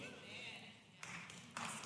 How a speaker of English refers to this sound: Yeah, two people, two people clapped on that.